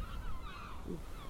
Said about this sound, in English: That's the sound whales.